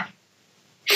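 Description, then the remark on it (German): A single loud sneeze: a brief breathy intake, a moment of near silence, then a sharp explosive burst that cuts off abruptly at the end. “Gesundheit.”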